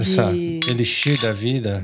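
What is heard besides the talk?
glasses clinking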